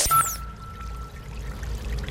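A steady gush of whitish slurry of cement and plastic microfibres pouring continuously into the Seine river in eastern Paris, France, a constant rushing splash with no voices, opened by a brief high chirp at the very start.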